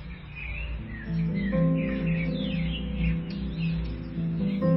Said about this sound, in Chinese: 偶尔出门取快递，经过小区花园，偶尔会听见鸟叫。是的，鸟叫，各种各样的鸟叫，在我们未看见的地方，春天已经来了。